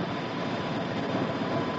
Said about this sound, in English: A few particles of dirt may not seem too important, but in the wrong place, they really make a difference. It doesn't take much dirt in the carburetor to make your car idle roughly.